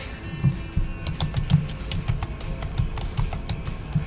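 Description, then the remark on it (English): Rapid, irregular clicking of keys on a computer keyboard as someone looks up which album a song came from, steady for several seconds, with a faint low hum underneath and no one speaking. “You hear me typing there?”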